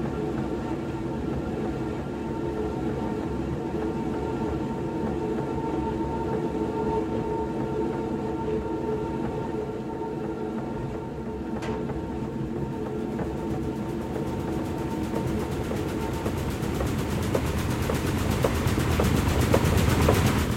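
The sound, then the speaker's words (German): A millstone in a mill grinds grain kernels in a continuous, heavy rumble with a faint singing, bright, clear ringing tone from the stone woven through it. The noise stays steady, swelling a little louder near the end, with no voices. “Ich mag besonders gern das eigentliche Rauschen des Mahlsteins, das eigentliche Geräusch, wenn, wenn der Stein die Körner zermalt, das hat was Singendes, weil der Stein so einen, so einen hellen, klaren Ton dabei gibt.”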